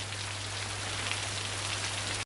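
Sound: rain falling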